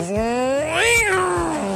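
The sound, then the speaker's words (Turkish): A voice mimics an electric drill with a continuous whining tone that climbs in pitch, peaks, then winds back down over about two seconds, loud. “O bizim hayatımızda bu matkap sesi vardı ya.”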